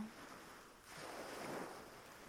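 Waves wash onto a beach in a steady, broad hiss, swelling into a fuller surge midway before easing back, with no voices over the sound of the surf.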